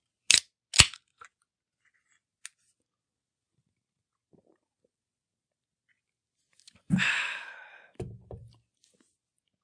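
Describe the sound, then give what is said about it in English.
A beer can cracks open with two sharp clicks, then after a pause comes a loud slurping sip, a swallow and a breathy sigh. “It's time for a beer. Let's go.”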